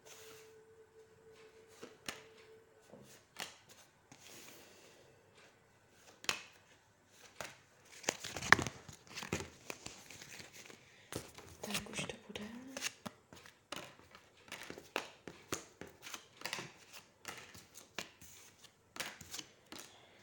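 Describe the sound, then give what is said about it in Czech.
Tarot cards being shuffled, a long run of quick papery riffles and soft flicks with a louder burst near the middle, continuing steadily with no one speaking. “Já už se dívám na vaše fotky, míchám u toho karty a podíváme se teda spolu, co nám Tarot řekne o vás dvou.”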